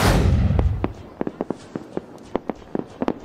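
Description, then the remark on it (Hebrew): Fireworks going off for the Fourth of July Independence Day celebration in the United States: a big opening boom rumbles and fades, then a string of sharp, irregular pops and crackles follows, with no voices. “יש גם פיצוצים שמחים, זיקוקים דינור כמובן.”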